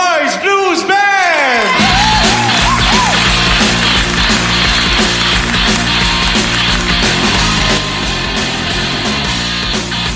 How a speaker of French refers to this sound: Veuillez maintenant ah, applaudir nos prochains invités, le dernier groupe de la soirée